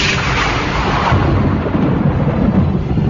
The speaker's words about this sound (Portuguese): Os trovões são mais intensos. Os raios estouravam por todos os lados, provocando uma onda de pânico e pavor. Trovões, chuva forte, raios ameaçadores.